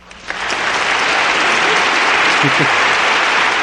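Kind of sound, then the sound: sound effect, applause sound effect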